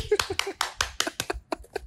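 About ten sharp hand claps in quick succession, fairly steady at first and then a little uneven, with faint low voice sounds underneath, clapping to celebrate Yang Yung-wei winning Taiwan's first Olympic silver medal in judo.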